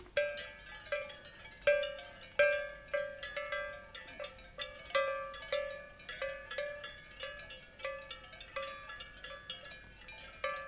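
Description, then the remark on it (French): Cowbells clank and ring in an irregular, overlapping rhythm, bright metallic strikes with a steady resonant tone, clear with no voices. “Il y a des maisons où ils ont des greniers là, pleins de cloches, d'autres qui n'en ont pas, ça dépend des, des générations avant quoi.”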